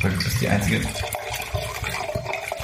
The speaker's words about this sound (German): man muss dazu sagen, Leute, was ihr hier gerade hört, ist leider kein Wein oder irgendwas, sondern es ist einfach nur Wasser.